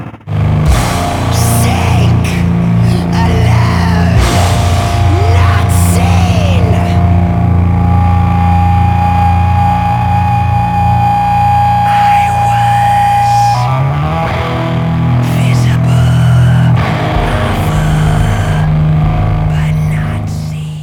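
Heavy, distorted drone doom metal: thick, sustained guitar chords and deep low-end rumble ring out loud and unbroken, with slow shifting tones and swelling feedback-like sweeps layered over the droning wall of sound.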